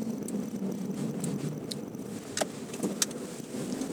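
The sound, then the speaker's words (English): A steady low rumble of a car interior while driving in the dark on a calm street, with a continuous engine and road hum and a few faint clicks and ticks scattered over the top, no voices. “It's nice to drive around in the dark calm on the street.”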